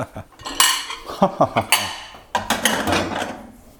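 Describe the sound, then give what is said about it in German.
Dishes and a dishwasher-safe metal pan clatter and clink on a table, a run of sharp knocks and scrapes in quick succession, with a brief pause before another burst of rattling. “Wir haben jetzt eine Pfanne, die man in die Spülmaschine tun kann.”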